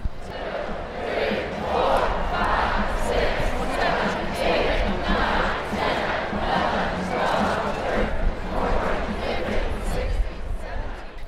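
A huge crowd at a university American football game roars continuously, with rhythmic surges of many voices chanting and shouting together, loud and dense throughout with no single voice standing out.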